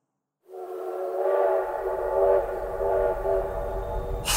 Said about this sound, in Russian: Паровоз свистнул, выпустил огромные клубы пара, показывая, что рвется в дорогу.